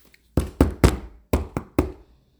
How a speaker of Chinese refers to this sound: 一阵急匆匆的脚步声在楼梯上响了起来，跟着门上就响起了用拳头捶门的声声音啊。